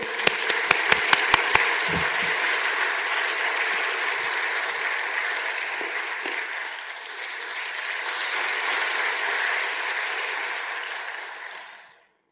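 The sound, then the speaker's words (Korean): An audience breaks into warm, sustained applause to welcome missionary James Linton as a speaker: a few sharp, distinct claps at the start swell into a dense wash of clapping that holds steady for about ten seconds, then quickly dies away. “우리 한번 제임스 린튼 선교사님 우리 한번 박수로 맞이하겠습니다.”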